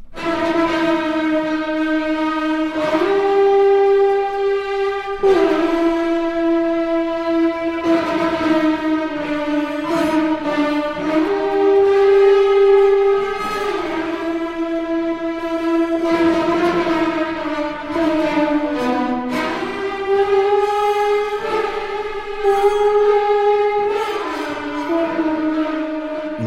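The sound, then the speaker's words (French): A low, reedy brass-like solo wind instrument plays sustained, sliding notes over a continuous orchestral backdrop, loud and close throughout, with no talking. “venons d'écouter un extrait du concerto pour serpent de Benjamin Attahir, qui a été compositeur en résidence à l'Orchestre national de Lille.”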